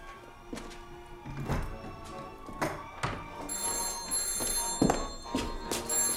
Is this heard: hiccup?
no